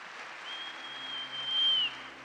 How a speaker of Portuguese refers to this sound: Pode dar uma salva de palmas ao rei.